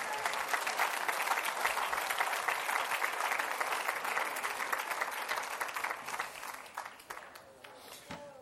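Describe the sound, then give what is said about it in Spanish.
An audience breaks into sustained applause for the Lord, a dense, steady wash of many hands clapping that holds strong for several seconds before thinning out and tapering off toward the end. “Denle otro aplauso al Señor, hermano.”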